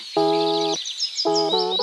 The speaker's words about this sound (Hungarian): ezt a zenét a FIFA 23-ból ismerem. Nagyjából akkor szól, amikor összerakom a csapat felállását